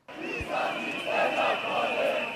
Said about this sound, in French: Comme chaque semaine, c'est une foule dense qui se masse en face du Parlement et envahit progressivement le centre de la capitale serbe. Jeunes et moins jeunes, on marche en famille ou entre amis et fleurs à la main pour dire non à la violence.